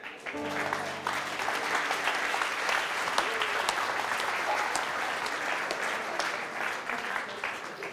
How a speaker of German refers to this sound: Gib ihm Applaus.